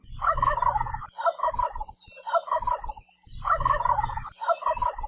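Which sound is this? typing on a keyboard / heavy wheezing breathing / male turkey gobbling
male turkey gobbling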